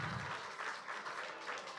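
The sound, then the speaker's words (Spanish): A church audience applauding steadily, a dense wash of many hands clapping at an even loudness with no voices rising above it. “No, pero están aplaudiendo”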